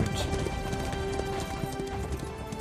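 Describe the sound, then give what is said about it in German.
A horse's hooves clip-clop in a steady, continuous rhythm at moderate loudness as it is ridden along the edge of the dunes, layered over a dense, sustained background hum. “Du brauchst eine ganze Weile durchs Land hältst hier und da an kleinen Dörfern, um sowohl dich als auch dein Pferd zu versorgen. Reitest unten ein bisschen Richtung Dünen lang, nicht weit Richtung Dünen, so am Rand halt,”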